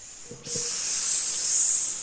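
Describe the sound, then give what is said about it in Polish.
A steady, fairly loud hiss, like line noise or static, starts abruptly after a brief quiet moment and holds continuously to the end, with nothing else over it. “słuchajcie, bo mam jakąś informację, że ktoś syczy.”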